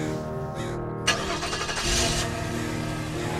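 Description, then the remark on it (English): A car engine cranks and catches with a sharp burst, then revs up briefly before settling into a steady rumble as the driver drives off. “And I drove off.”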